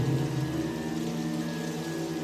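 Steady, light rain patters continuously, a soft even hiss with a low droning hum underneath, holding at a constant level with no voices.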